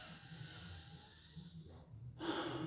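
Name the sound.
labored wheezing breath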